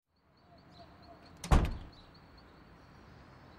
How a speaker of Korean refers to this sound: 무거운 나무 문이 등 뒤에서 단단하고 왠지 불길한 소리로 쿵 하고 닫힌다.